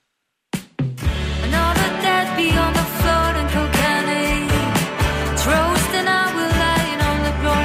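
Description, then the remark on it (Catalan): After a brief moment of silence, a full band launches into a song from a newly released album: deep bass, steady drums and layered instruments play loud and dense, with no talking over it. “acabava de publicar un disc meravellós, un disc que sona així, posa …”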